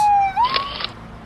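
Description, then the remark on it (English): A loud ambulance siren wails, its steady tone sweeping upward in a brief, rising glide before trailing off, with no voices. “Ooh, an ambulance.”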